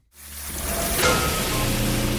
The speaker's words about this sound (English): We walk inside and it's raining. Our home was ruined.